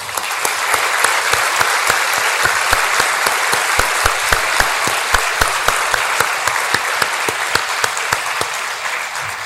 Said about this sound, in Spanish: Demos un fuerte aplauso a nuestro Señor.